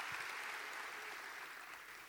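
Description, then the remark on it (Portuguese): A church audience claps steadily for the unseen people who serve the church, many hands blending into a dense, even wash of applause that holds at a fairly constant level and fades slightly toward the end, with no one speaking. “Quem de vocês pode, juntamente comigo, dar um aplauso às pessoas invisíveis que têm feito essa igreja avançar?”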